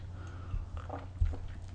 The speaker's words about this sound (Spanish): Bueno, me extendí un poco en el primer tema, así que me voy a dar rápidamente el segundo sorbito del día,